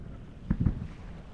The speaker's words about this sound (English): For example, you can now hear the ubiquitous sound of rain in Vancouver, a distant train siren, various bird songs the rumble of the harbor